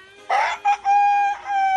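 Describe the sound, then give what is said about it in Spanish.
A rooster crows once, loud: a quick rough opening burst, a short note, then a long sustained, strained call that wavers before trailing off. No one speaks. “¿Cómo le hace el gallo?”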